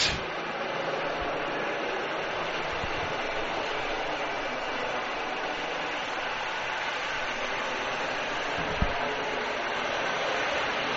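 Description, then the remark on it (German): A helicopter takes off again behind the commentators at an American football game, its loud, steady turbine roar filling the whole stretch as a dense, unbroken wash of noise without pauses or speech. “Währenddessen hebt der Hubschrauber hinter uns wieder ab. Deshalb ist es jetzt wieder laut.”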